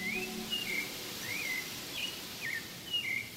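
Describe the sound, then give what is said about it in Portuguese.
A rufous-bellied thrush, brown with an orange belly, sings from a nearby bush in the forest, a series of short, clear whistled phrases, about five in a row, soft over a steady background hiss. “Ele tem a penugem parda com a barriga alaranjada. É um sabiá laranjeira.”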